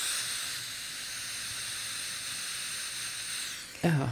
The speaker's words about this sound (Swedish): Jo, jag har, jag har en app just för att, för att kunna studera eller jobba, så ibland sätter jag på white noise. Mm. Här, är, här är lite white noise.